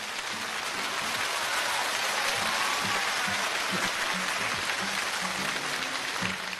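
Steady, dense applause from an audience, a continuous crackling wash of many hands clapping at even loudness throughout, with faint low voices murmuring underneath.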